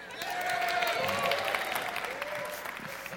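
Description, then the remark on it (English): An audience breaks into steady, dense applause for the morning's speaker, a continuous wash of clapping hands lasting about three seconds, with a few faint voices rising through it. “you're stuck with me again as a blatant, pathetic attempt at forced sympathy and applause.”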